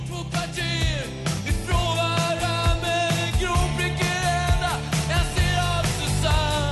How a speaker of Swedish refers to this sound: varför i hela fridens dag … sjunger En grå prickig höna jag ser, Åh Susanne